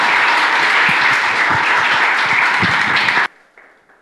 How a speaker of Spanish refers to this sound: Así que reciben por favor con un fuerte aplauso al pastor fundador de esta iglesia